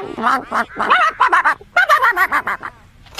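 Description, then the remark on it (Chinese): Ducks on a farm quack while being fed pig feed, a rapid, overlapping flurry of nasal calls, about a dozen loud bursts tumbling over one another for a few seconds, with no one speaking. “那你干嘛给鸭子喂猪食啊？”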